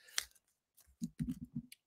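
Crisp crackling of a piece of holiday wrapping paper being handled inside a box, in a few short irregular bursts with brief pauses between them, fairly quiet and with no voices.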